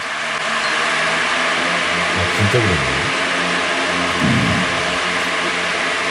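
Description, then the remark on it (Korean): An electric fan runs on its third (high) speed setting, a steady, loud whooshing roar that fills the whole clip, while a couple of people speak briefly over it. “그 선풍기 3단 소리가 아니라 팥빙수 얼음 가는 소리로 들리는데요.”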